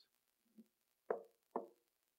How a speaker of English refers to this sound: Knock, knock. He doesn't take a sledgehammer and bust down the door. He's not crawling through a window.